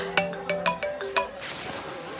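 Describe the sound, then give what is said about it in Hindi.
A mobile phone ringtone plays a quick series of bright, rhythmic electronic tones, about six sharp pulses in the first second and a half, then a softer tonal wash fading out. No one speaks. “mama please मुझे phone मत करो मेरा डिसीजन फाइनल है”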